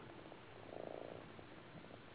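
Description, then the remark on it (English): A cat purring softly, a low, fluttering rumble that runs steadily through the whole moment and swells slightly in the middle, with no voices over it. “Can you hear my cat purring?”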